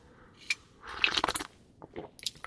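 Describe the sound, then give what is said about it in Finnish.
A slurp of tea: a short, airy sucking burst, followed by a few small wet mouth clicks and a quiet swallow, with no one talking. “Nyt tulee hörppäys. Piti tulee muuta, mutta mä teosin, että nyt on ehkä syytä ottaa vähän teetä.”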